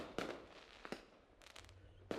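Fireworks go off outdoors in a dark rice field at night: three sharp booming bursts spaced irregularly, with a quick flurry of crackling pops in between. No one speaks.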